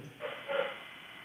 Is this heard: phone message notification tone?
no